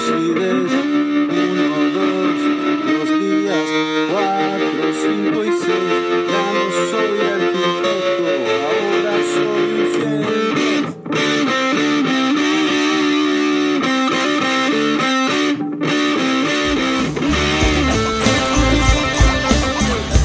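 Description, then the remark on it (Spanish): An electric guitar sustains a single chord through a tremolo effect with a slight distorted shimmer, holding a steady loud level; a low bass drops in during the last few seconds. “Luego cuando viene la estrofa, utilizaba el mismo mof, pero con el trémolo y era lo posible”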